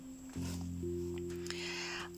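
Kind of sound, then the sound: animal, bear growling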